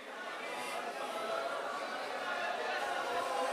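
A large church audience at CCC in Fredericton chatters and cheers at once, a dense, steady wash of many overlapping voices with no single speaker standing out, fairly loud and continuous throughout.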